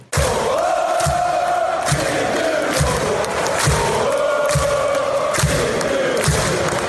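A large crowd in a supporters' section chants loudly in unison, voices rising and falling in a sustained sing-song, punctuated by regular deep thumps like drumbeats or stamping roughly every second.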